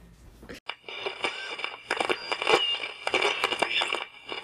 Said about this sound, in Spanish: La voz femenina fue ahogada nuevamente por interferencia estrangulada.